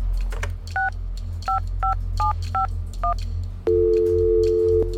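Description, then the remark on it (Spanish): A telephone number is dialed on a keypad to make a call: six quick two-tone beeps in an uneven rhythm, then a steady, continuous phone tone holds to the end. Clear over a low hum, with no voices. “Seguí trabajando y cuando se acercó la hora tomé el teléfono y marqué.”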